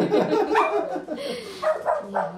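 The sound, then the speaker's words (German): A household watchdog barks and yips several times in quick succession, moderately loud, with a few short bursts of barking spread across the moment. “Also wenn es Störgeräusche gibt, das ist dann unser Wachhund hier.”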